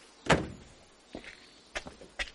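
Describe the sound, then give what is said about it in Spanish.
A car door thuds loudly once as a grey-haired man gets out and a man dressed as a policeman holds the door, followed by a few lighter clicks and knocks of the door being handled and shut, with no one speaking. “De él baja un hombre de pelo canoso. Otro, vestido de policía, le sujeta la puerta.”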